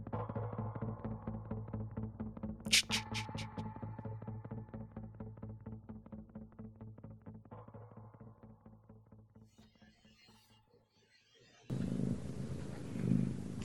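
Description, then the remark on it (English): A cat purrs steadily, a low rhythmic rumble, with one brief high meow early on, before a louder burst of rustling noise at the end. “I hear a cat.”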